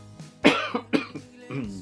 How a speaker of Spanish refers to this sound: Me da por toser